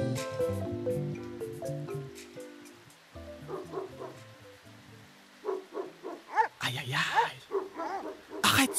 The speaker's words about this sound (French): Oh non ta abruti de chien Après, il avait empoisonné. Oh. Mais tu nous as dit que tu l'avais enterré Ben oui Mais comme tu le vois, cet idiot de chien l'a déterré. Et il est en train de partir avec.